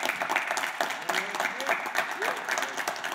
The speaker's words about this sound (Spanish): ¿Por qué no le das un aplauso a Jesús?